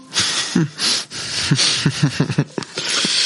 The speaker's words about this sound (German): Was macht man, wo man durch die Nase atmet, weil man durch den Mund nicht atmen kann in dem Moment? Das ist Performance.